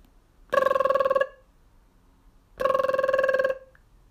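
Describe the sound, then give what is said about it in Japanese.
A telephone call to a fortune-telling company, made after seeing a flyer on a utility pole, rings in two long bursts separated by a pause, a steady rapid trilling bell tone, clear, with no voices present. “あなたのためにどうやったら結婚できるか占いますよっていう、あの広告、電信柱に貼られてるチラシの広告を見て、ついつい電話しちゃったんです。”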